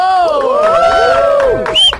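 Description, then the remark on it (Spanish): An audience bursts into loud cheering for the comedy group Bros Nación as they are welcomed on the show Altavoz, many voices whooping and shouting in overlapping rising and falling tones over a steady wash of applause, sustained for about two seconds. “¡Un aplauso!”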